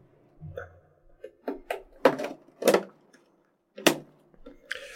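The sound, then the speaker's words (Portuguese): A chicken-in-a-pot food container being opened: a few sharp plastic clicks and snaps at uneven intervals, with soft rustling and scraping between them, no voices. “É, vai botando nos comentários aí enquanto a gente tá abrindo aqui o frango no pote.”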